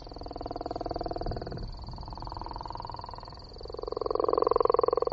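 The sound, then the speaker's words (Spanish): A gopher frog calls with a deep, rattling, snore-like croak of rapid pulses, steady, growing louder near the end, over a thin constant high-pitched whine in the background. “Una rana, sí.”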